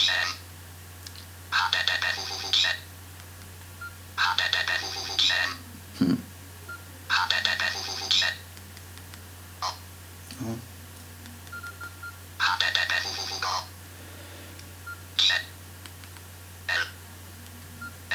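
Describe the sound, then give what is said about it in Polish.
Bursts of rapid electronic keypad beeps from a mobile phone as someone tries to type letters, pressed in quick irregular clusters with short pauses between, clear over a low steady hum. “No coś nie mogę wpisać literki. O! Ale może mi się uda.”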